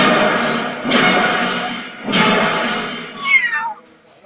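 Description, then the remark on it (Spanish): A cat lets out a short, falling meow near the end, preceded by two broad, noisy bursts of sound; no one speaks. “¿Cómo se llama el gato?”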